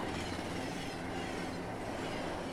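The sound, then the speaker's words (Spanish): A night steam train runs in a loud, steady rumble with a dense clattering roar that holds for the whole moment; no clear whistle tone stands out, and no one speaks. “El tren silbó un buen rato.”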